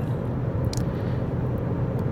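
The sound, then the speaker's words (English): A truck pulling a trailer rumbles steadily on a road, its deep low-frequency drone filling the moment, with a brief hiss partway through; the truck is locking up its brakes. “just like that truck, I want to challenge you to put the brakes on a moment.”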